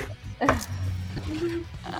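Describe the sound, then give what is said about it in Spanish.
Wet mouth noises, a voice imitating a dog lapping water, with one sharp smacking click and low humming vocal tones running through the short stretch. “Eh, pero, ese es como un perrito tomando agua, weón.”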